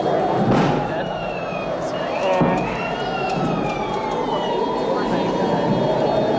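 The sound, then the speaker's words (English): An emergency vehicle siren wails through a busy street, its rising and falling tones sweeping over steady traffic noise, continuous throughout. “I'm doing it just to get the siren in the background.”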